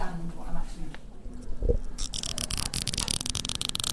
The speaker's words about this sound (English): Yes, when you brush the microphone itself, that's much more arresting than when you run your finger over the brush.